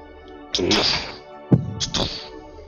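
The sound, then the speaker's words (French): Heavy hoofbeats of a four-legged creature walking in the distance thud a few times at an uneven pace, each a loud impact with a ringing, metallic edge, over a steady hum and no talking. “Vous entendez des, des, gros bruits de sabots.”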